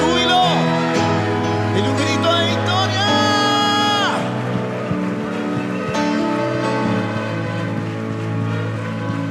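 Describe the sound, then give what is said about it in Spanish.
A large audience claps and cheers in a sustained, dense wash of applause for Jesus, with loud music playing and a voice ringing out over the crowd. “Dele el mejor aplauso al Rey de Reyes y al Señor de Señores.”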